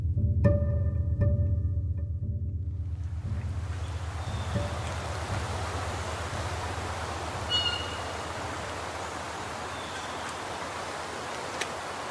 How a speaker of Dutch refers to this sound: Je hoort het riviertje de Hunze. Dit riviertje stroomt aan de rand van de gemeente Gieten in Noordoost-Drenthe.